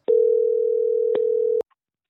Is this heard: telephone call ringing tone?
yes